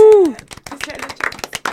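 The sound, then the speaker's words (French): A voice lets out a short, falling "ooh" cheer, then an audience claps and applauds in quick, dense bursts of sharp hand claps that keep going to the end. “on est bon, j'adore, j'adore nos applaudissements aujourd'hui.”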